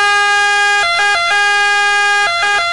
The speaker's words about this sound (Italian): Cosa succede alla nostra ambulanza se alziamo il pitch del 3%? Ecco, questo è il pitch normale. E questo è il pitch aumentato del 3%.